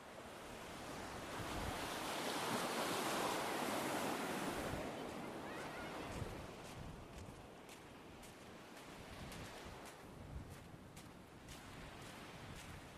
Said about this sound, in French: Le prochain son a été réalisé l'été dernier sur la plage camarguaise de Piémençon